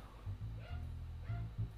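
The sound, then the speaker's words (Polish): A dog barks several times outside in low, muffled woofs, with short gaps between the barks and no voices over them. “Gdzieś na mm, zewnątrz czeka ja jakiś chciała... pies?”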